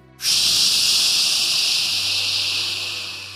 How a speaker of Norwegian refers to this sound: Han legger det rødglødende metallet ned i bøtta med vann.